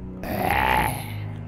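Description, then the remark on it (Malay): A single deep, gruff grunt voiced by a person imitating a rough male growl, lasting under a second, fairly loud, with no words spoken. “Kemudian bunyi Bunyi seperti seorang lelaki suara garau”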